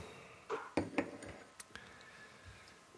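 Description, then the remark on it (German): A glass bottle clinks and knocks as it is handled while being opened, with a few sharp bright taps in quick succession followed by fainter scattered clinks. “Ich öffne schon mal die nächste Flasche.”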